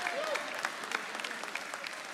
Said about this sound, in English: Would you like for me to tell you some other things I do? Maybe you'll clap for that too.